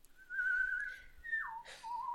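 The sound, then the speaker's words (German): A footman whistles a short, steady tune, a sustained clear tone that glides downward to a lower note, moderately loud with no talking. “Was dir gefällig ist, sagte der Lakai und fing an zu pfeifen.”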